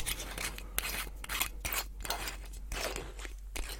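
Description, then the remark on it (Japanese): The sealed cap of an unopened bottle of Black Nikka Special whisky being twisted open for the first time, a rapid series of dry crackling, snapping clicks and gritty rasps that come in uneven bursts over a few seconds, with no voices. “未開封ですから。今日今、たった今、開けてるところ。”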